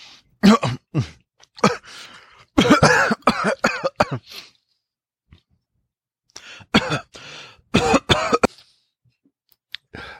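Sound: coughing and throat clearing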